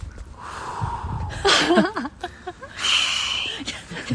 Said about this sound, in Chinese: 大家好，我们换了一个场地，现在大家可能能听到风的声音跟海浪的声音。